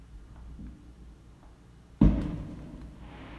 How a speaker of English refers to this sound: oh, happy New Year! This is it, 2021. First minute I've done Pacific time here. They're shooting off fireworks big time. It's beautiful. I'm loving it already.